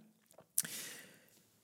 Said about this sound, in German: So, kurzen Schluck Wasser, das muss sein.